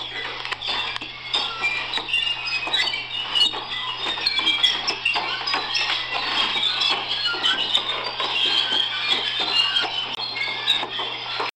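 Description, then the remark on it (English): A dense, continuous chorus of high, rapid chirping squeaks, much like many small birds, keeps up steadily for the whole stretch over a faint low hum. “it sounds like little birds chirping.”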